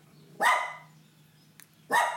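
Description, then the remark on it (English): A dog named Harry barks twice, loud, with a pause of over a second between the sharp, harmonic barks and a faint low hum underneath. “You don't even know what you're barking at at this point.”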